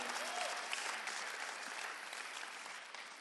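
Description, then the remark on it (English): A crowd applauds a speaker's testimony, a dense wash of many hands clapping at an even, moderate level for a few seconds with no voices rising above it. “and that was the most embarrassing moment, and it definitely deserves a round of applause for me baring my soul.”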